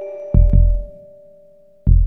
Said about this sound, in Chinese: 抱着阿宾，可以听见雪怪轻轻的咕噜声，还有扑通扑通的心跳。